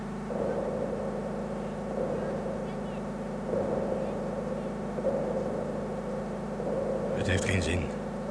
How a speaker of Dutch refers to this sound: Geef mij eens een audioreferentie voor het richten van de telescoop.